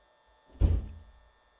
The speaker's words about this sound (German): Sorry, da ist gerade im Hintergrund eine Tür geknallt.